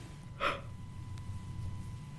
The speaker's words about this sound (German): ich schwöre, müde sein führt nicht zum Gähnen. Also Gähnen kommt nicht von müde sein, weil ich bin nicht müde und ich muss trotzdem gehen.